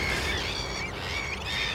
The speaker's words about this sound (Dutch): Het is echt eh, schitterend als je dan al die vogels om je heen hoort. En met name al het leven ook gewoon. Eh, al die verschillende vogels die zitten te roepen.